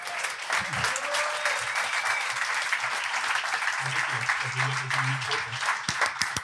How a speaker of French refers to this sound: Et puis bien euh, sûr, on va faire euh, un, nous de notre côté un tonnerre d'applaudissements pour tous ceux qui sont venus ce soir.